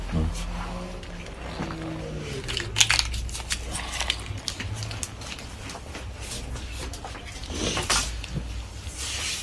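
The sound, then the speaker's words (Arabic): A plastic test kit bag crinkling and rustling as it's handled, with irregular crackly bursts throughout and a low background hum, faint voices murmuring underneath. “استنى شويه طول الكيس لسه بدري لسه؟”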